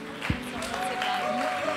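An audience claps in a steady, crowded patter that fills the room, with a few voices murmuring underneath.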